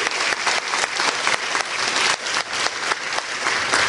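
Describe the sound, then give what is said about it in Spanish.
Loud, sustained applause from an audience welcoming the invited guests of an evening event, a dense crackle of many hands clapping steadily for the full four seconds with no speech over it. “Bueno, muchachos, más que bienvenidos, un aplauso fuerte para ustedes porque están aquí.”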